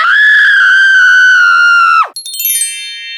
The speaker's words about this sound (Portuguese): Assim que a viu muito entretida, a moura torta tirou do seu vestido um alfinete encantado e o enfiou na cabeça da moça. Esta deu um grito.